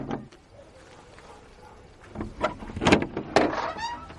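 After a quiet stretch of low background noise, a few sharp knocks on a door sound out, loud and irregularly spaced, with a faint rustle between them.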